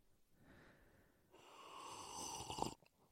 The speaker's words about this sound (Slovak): Môžeš prestať piť kávu, keď sme vo vstupe? Pardon. Ale ukáž, bol to takom dobrý zvuk, ukáž?